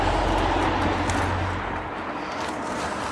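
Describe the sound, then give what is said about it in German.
A car's engine rumbles with a steady low drone that fades partway through as the vehicle moves off along the road, leaving broad road noise behind. “Ist auch nur noch ein Auto, was ich irgendwie”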